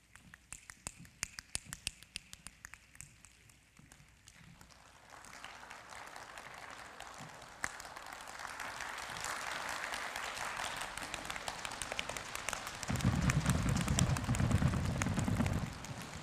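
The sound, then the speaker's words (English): A crowd, following a speaker's lead, mimics a rainstorm with wind and heavy rain by hand: scattered finger snaps and taps build into dense, rushing clapping that swells like heavy rain, with a deep rumbling burst near the end. “And soon the sky grows dark, and the wind starts to blow, and a heavy rain begins to fall. And now I need you all to participate with me and follow my lead.”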